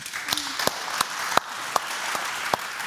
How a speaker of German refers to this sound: Äh, ich danke euch viel, viel mal, habt ihr euch die Zeit genommen und ich würde Sie gerne nochmal mit einem Applaus äh, verabschieden.